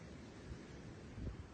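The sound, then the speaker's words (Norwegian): Water splashing and spilling, a soft rushing wash with a brief surge near the start and a fuller gush toward the end. No one speaks. “Men eh, oi, der kom det vann.”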